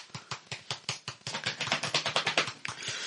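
Quick, steady slapping of hands on thighs, a run of about twenty sharp smacks that grow denser and slightly louder midway, with no talking; a demonstration of how a sound in the film Der Schuh des Manitu was made.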